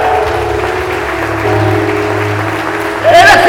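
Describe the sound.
An audience applauds in a steady, dense wash of clapping that holds throughout, swelling louder near the end, with a low sustained hum and raised voices mixed underneath.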